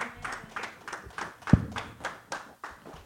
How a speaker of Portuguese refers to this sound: Deus, você que foi abençoado, dê mais uma salva de palmas para o Senhor. Amém.